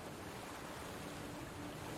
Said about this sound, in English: Joyfully, he took to the waves and voyaged westward, towards what was once his home. The vessel glided along the waves before a powerful breeze, its prow cutting gracefully through the water towards the far off shores of Celdrúin.